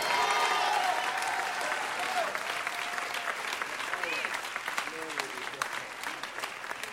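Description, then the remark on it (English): An audience claps steadily for Jesus throughout, a dense wash of many hands with scattered sharper claps, while faint voices call out over the applause. “I think you can clap better for Jesus.”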